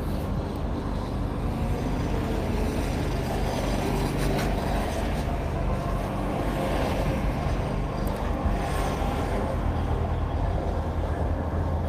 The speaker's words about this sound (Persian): دوباره یه ماشین از کنار من داره رد میشه